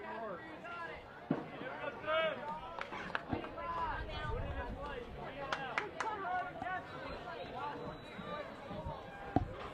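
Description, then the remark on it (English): A crowd of Hornets supporters at a night baseball game keeps up a steady babble of many overlapping voices, with occasional sharp knocks and short shouts rising above the murmur. “good Hornet uh, crowd coming out tonight, supporting the good guys.”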